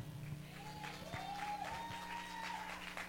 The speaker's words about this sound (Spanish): Si quiere, puede aplaudir y capaz que el Señor se alegra.